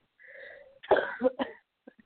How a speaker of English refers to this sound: All right. Hey, I'm getting over it too. this cough. I know it. I know it.